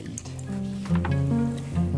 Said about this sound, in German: Die entfernt Matthias erstmal vorsichtig durch die Magenöffnung der Qualle.